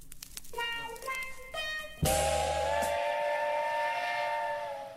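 A steam train whistle blows loudly, first in a few short chuffing toots, then one long sustained shriek layered with hissing steam and a low rumble underneath.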